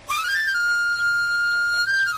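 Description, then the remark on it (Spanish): A knife grinder's whistle: a quick upward glide settles into a long, steady high-pitched tone with a bright, reedy edge, lifting slightly again at the end, loud and alone with no talking. “El afilador.”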